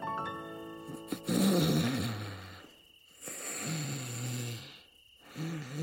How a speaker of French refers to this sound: ronflait maintenant bruyamment.